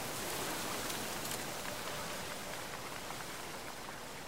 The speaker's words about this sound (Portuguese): Ao redor, o vento sacode as copas das árvores.